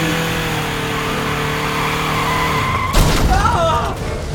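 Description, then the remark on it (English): A 4x4's engine drones steadily at high revs, then a loud, sudden crash as it smashes through a fence where Egyptian soldiers stand, followed by short, wavering tire screeches. “We slammed through the fence, and the Egyptian soldiers dived out of the way.”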